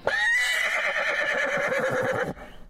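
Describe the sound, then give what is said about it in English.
A horse whinnies loudly, one long shrill call with a rapid quavering flutter that holds for about two seconds before cutting off, with no talking. “I said no horses, stupid horse.”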